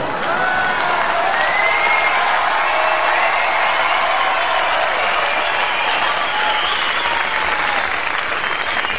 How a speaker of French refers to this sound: Hein, ben, les gens sont fous, ils applaudissent.